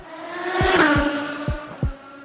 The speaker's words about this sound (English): Drag racing is basically two race cars on a straight track racing to a finish line.